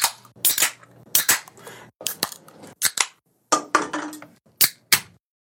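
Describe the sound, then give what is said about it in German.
A beer can is opened and poured: a string of sharp, loud snaps and crackles in irregular bursts, followed by a denser stretch of fizzing, with no voices. “Ich, ich gieße mir schon mal was ein.”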